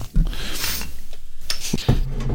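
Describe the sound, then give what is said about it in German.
A bottle of Erdinger non-alcoholic wheat beer being opened: a few sharp metallic clicks and clinks from the cap, with a short airy hiss in between, over a low steady background hum. “Nee, ich mache ein Erdinger Weizenbier alkoholfrei auf.”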